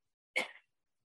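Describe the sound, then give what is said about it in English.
A single short, sharp sneeze bursts out, a quick explosive rush of air that fades within a fraction of a second, with silence around it. “Bless you.”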